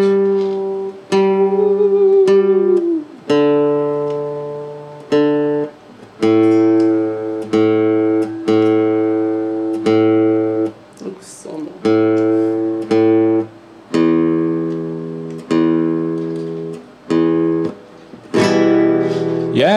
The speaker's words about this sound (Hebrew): וזה היה שיר כיוון הגיטרה